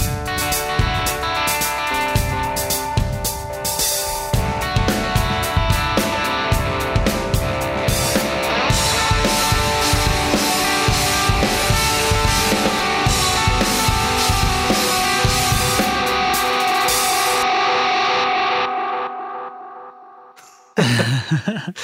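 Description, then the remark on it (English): A guitar run through a Caroline Kilobyte delay pedal plays over a steady, driving drum beat, with layered echoing tones. Near the end the bright top fades away, and the music stops abruptly. “Oh, and it sounds like this, but with drums.”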